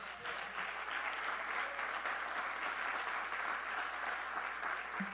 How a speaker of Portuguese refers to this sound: Você pode aplaudir Jesus.